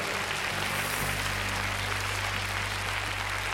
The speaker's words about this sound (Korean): 우리 주님께 감사와 영광의 박수 한 번 더 올려봅시다.